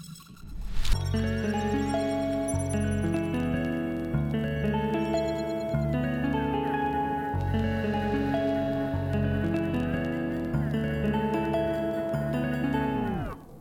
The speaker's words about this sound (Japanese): それではここで電音部楽曲紹介のコーナーイエーイ今週の一曲をご紹介しますそれでは聴いてください